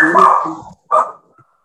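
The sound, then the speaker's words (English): A dog barks twice, a longer bark followed by a sharper one after a short pause, loud with no one speaking over it. “you have a dog because that I don't.”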